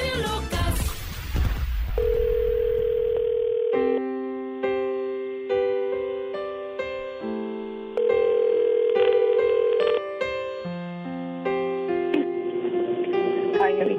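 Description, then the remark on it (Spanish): After a brief noisy burst, a telephone ringing tone plays loud and close: steady electronic tones that shift pitch every second or so in a repeating pattern, with no voices. “Eso es el teléfono de Juanita.”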